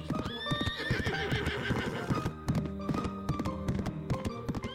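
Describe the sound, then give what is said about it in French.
Rapid hoofbeats of a galloping horse pound along in a steady, driving rhythm, loud, with a bright whinny ringing out near the start and no voices. “Il remua ses oreilles et s'élança dans son plus beau galop, heureux de pouvoir être utile la nuit de Noël.”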